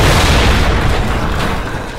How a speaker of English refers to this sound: the sweet sound of explosions. Oh, I'm telling you, it's just uh, oh. it's wonderful.